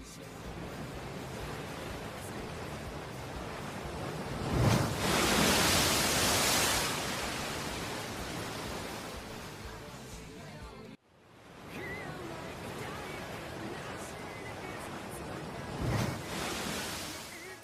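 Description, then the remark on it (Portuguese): Ocean waves roll and break on a beach in a steady wash of surf, with two louder crashes swelling up amid the continuous hiss, heard alone with no voices. “Vocês passam o resto do caminho descansando até que vocês começam a escutar o som de praia”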